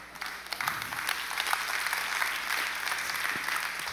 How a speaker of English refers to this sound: That's offensive. I don't know why you clap. It offends me.